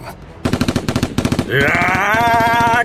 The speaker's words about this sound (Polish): Przemek ładował całą serię w zarażonych.